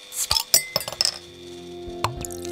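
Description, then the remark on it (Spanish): A bottle of Iguana beer being uncapped with a neodymium magnet opener: a quick run of sharp metallic clinks against glass, then a lingering ring and a couple of softer taps, with no talking. “Entonces vas a agarrar la iguana y la vas a poder destapar usando el ion de neodimio que tiene eh, el, ídolo pegado.”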